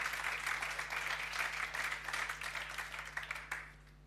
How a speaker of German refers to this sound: Ja, gebt mir noch einen Beifall.